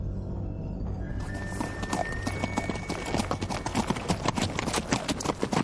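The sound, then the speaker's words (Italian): Horse hooves clip-clop in a steady, quick rhythm, loud, with a continuous low rumble underneath like wagon wheels or movement over ground. “Ferma i cavalli, Kit!”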